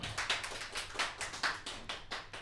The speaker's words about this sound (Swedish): och så till er producenter, ni är producenter allihopa, så applådera yeah. er själva.